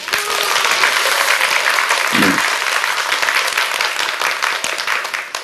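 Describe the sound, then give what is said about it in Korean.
An audience breaks into steady applause, a dense wash of many hands clapping that holds at an even loudness for several seconds, with a brief low murmur partway through. “박수를 쳐주세요.”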